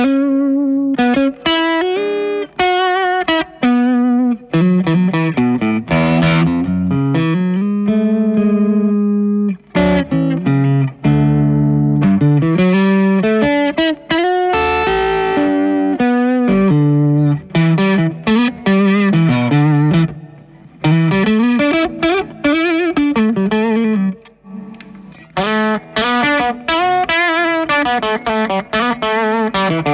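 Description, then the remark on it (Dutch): Distorted SG electric guitar playing a continuous lead line, with sustained, harmonically rich bent notes and quick melodic runs, loud and steady throughout with a few brief pauses and no talking. “ik vind het dus vaak zo, zo mooi aan die SG's dat dat element zit net niet helemaal op dezelfde plek”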